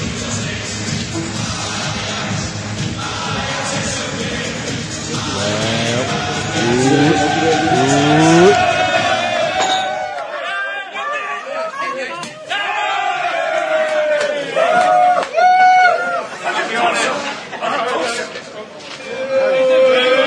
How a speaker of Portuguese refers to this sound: vamos ouvir uma gracinha aqui, uma comemoração, um áudio do vestiário do Ajax, campeão holandês. Vamos lá.